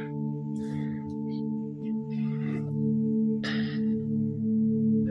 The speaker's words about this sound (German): Lausche den Vögeln, wie sie zwitschern.